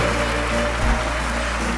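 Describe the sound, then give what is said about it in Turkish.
A crowd at a stage show applauds the conductor Taşkın Sabah steadily, a dense, even wash of clapping that holds at a constant level throughout, with no voices rising above it. “Önce büyük alkışlar hoca için.”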